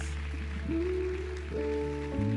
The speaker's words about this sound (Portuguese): Pode louvar o Senhor com palmas.